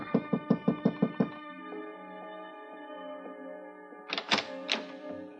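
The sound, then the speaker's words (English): A quick series of about seven firm knocks on a hotel room door, room 1016 of the Roosevelt Hotel on Canal Street, fairly loud, followed by sustained music and then a few more thumps a few seconds later. “I gave her five minutes, then I knocked on her door.”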